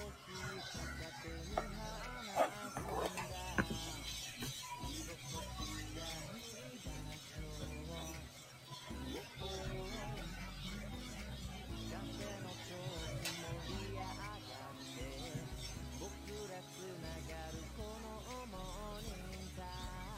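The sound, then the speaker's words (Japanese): Coffee beans roasting in a roaster at a coffee shop during business hours: a steady, loud whirring drone with beans rattling and tumbling throughout, dotted with occasional sharp clicks and pops over about twenty seconds. “しばらくちょっと焙煎の音、お聞きください。”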